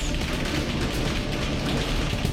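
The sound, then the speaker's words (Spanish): A sustained exchange of gunfire between soldiers and criminals in Altar, Sonora, in July 2022, recorded by residents, with rapid overlapping shots crackling continuously over a dense, noisy background. “Este es el intercambio de disparos entre militares y delincuentes que grabaron los residentes de Altar Sonora en julio de 2022.”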